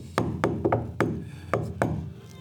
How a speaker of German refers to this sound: Ihr hört wieder das Klopfen an der Tür.